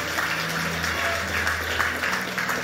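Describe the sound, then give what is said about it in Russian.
Steady applause at a church service fills the whole stretch as first-time visitors who have not yet accepted Jesus Christ are called forward. A dense crackle of many hands clapping at an even loudness, with a low droning hum running underneath. “Давайте аплодисменты большие.”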